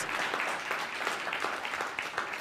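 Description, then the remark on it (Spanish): A crowd applauds steadily, many hands clapping at once in a dense, continuous wash of sound with no individual claps standing out, sustained at an even level throughout. “Vamos fuerte el aplauso.”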